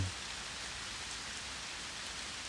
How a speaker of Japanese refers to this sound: 結構雨強いな